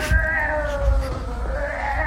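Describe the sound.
A person imitates a cat with a long, drawn-out meow that wavers in pitch for about two seconds, fairly loud, with no other sounds.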